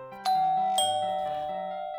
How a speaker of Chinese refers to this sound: 正当我要拿出粉红色的绒布替它制作背心时，刚好家里的门铃就响了。